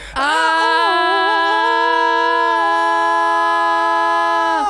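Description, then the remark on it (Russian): Several people, each showing their best scream on a count of three, scream together in a loud, sustained, high-pitched yell that starts abruptly and holds steady for nearly five seconds before cutting off. “Давайте, учитывая, что это франшиза Крик, каждый из нас, перед тем, как мы попрощаемся, покажет свой лучший крик.”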